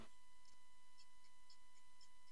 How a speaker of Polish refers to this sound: O, słychać. To jest zegar, który Czyli odmierza tyka nam czas. po prostu. No słychać, że tyka. Tak. To jest sprężynowiec zwykły, y, który nam odmierza czas y, do końca tego, co robimy.